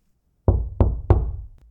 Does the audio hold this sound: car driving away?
no